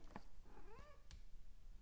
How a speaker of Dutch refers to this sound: Oh, mijn kat die zit ondertussen op mijn inductieplaat en die begint te piepen. Poes, kom, je moet heel even eraf.